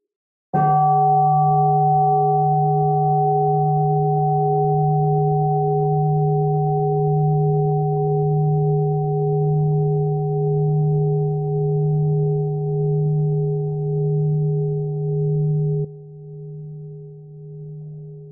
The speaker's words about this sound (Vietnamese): xin sư cô tỉnh một tiếng chuông cho mọi người buông thư trước khi mình đi tiếp